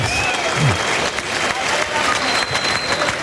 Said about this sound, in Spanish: el público que está recordando los muletazos que ha disfrutado tanto y hay parte del público que está aplaudiendo recordando esa faena y otro pues que eh, está expresando su, su, molestia por no haber acertado Juan Serrano con el verduguillo